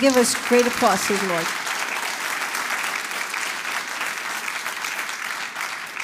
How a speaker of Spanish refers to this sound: ¿Le puede dar un fuerte aplauso al Señor?